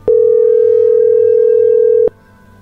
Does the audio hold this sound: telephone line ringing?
yes